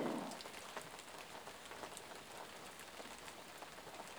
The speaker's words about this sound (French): Profitez toujours du son de cette pluie de cette connexion avec la nature.